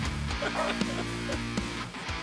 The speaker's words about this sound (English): just got my dogs excited.